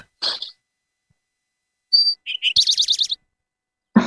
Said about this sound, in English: But yeah, the typical uh, way to describe the sound of the Eastern Towhee is drink your tea. So let me just put a bit more of it.